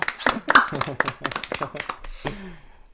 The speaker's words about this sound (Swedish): Bra gissat. Applåd!